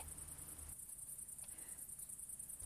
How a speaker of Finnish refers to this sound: kirkkonummella niityllä etsiskelemässä heinäsirkkoja ja erityisesti hepokatteja. Kuuntelemme ääniä ja yritämme suunnistaa niiden mukaan.